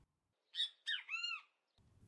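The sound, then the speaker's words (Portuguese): A great kiskadee (bem-te-vi) gives its loud, clear three-part call, a sharp opening note followed by a longer rising-and-falling phrase, heard alone, then a brief low rumble at the end. “Isso mesmo, o som do nosso amigo pássaro, chamado de Bem TV, porque aparentemente foi isso que a pessoa que deu o nome a ele achou que ele falava.”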